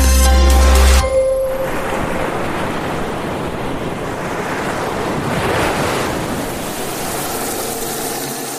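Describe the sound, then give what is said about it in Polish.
After a brief opening tone, steady ocean surf rushes ashore for several seconds, a broad continuous wash of breaking waves that swells louder midway, with some wind noise mixed in. “Woda.”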